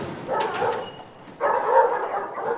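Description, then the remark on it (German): Nila, a female German shepherd detection dog specialised in the scent of protected animal species, gives two barking bursts, the first around half a second and the second longer and louder with a slightly whining tone, separated by a short pause. “Denn neben ihm läuft Nila, eine deutsche Schäferhündin, spezialisiert auf den Geruch geschützter Tierarten.”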